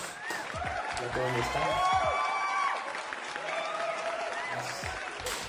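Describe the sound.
A burst of applause with excited cheering voices mixed in, steady and fairly loud for a few seconds, with the clapping texture continuing throughout.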